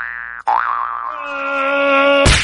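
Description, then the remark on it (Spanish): A springy cartoon boing of a trampoline bounce bounces out after a short tone, its wobbling pitch stretching into a sustained twang that ends in a sudden burst of noise. Loud, with no talking. “Primero, con una cama elástica”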